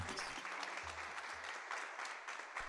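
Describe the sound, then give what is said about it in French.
Applause from a crowd after a contemporary dance performance, a dense patter of many hands clapping at steady volume, the last stretch of an ovation, with no voices. “La danse contemporaine en dialogue et en décryptage dans une ambiance post-spectacle, alors que les corps viennent de s'assagir, que la respiration a repris son rythme apaisé, que le son des derniers applaudissements s'amenuise.”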